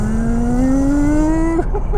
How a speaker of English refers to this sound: Oh, listen to the sound! Oh, ah, 5,000 RPM. Oh, ah, it's just sublime. 4,400 RPM in the fifth gear, 82 miles an hour.